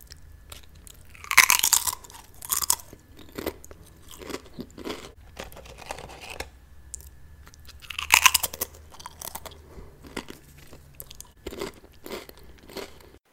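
Loud crunching of a crisp potato chip being chewed, with sharp bursts of bites and a steady run of smaller crackling chews in between, no voices.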